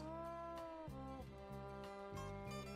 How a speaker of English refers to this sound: Hi. What are you meowing at?